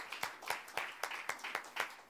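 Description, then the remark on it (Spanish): An audience at a church service applauding for God (Jehovah), many hands clapping together in sharp, even beats about four per second over a continuous wash of scattered claps. “Pero el aplauso no es para mí. Es para Jehová de los ejércitos. Démosle uno más fuerte.”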